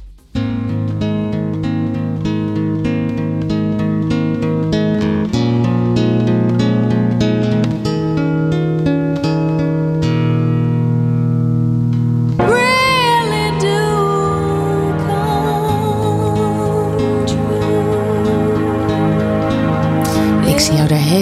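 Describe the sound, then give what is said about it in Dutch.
A woman sings with her own guitar accompaniment: steady plucked chords ring out alone for about twelve seconds, then a clear, sustained voice with gentle vibrato enters over the strumming. “En, eh, eh, gewoon, ze, begeleidt zichzelf op de gitaar. en ze zingt.”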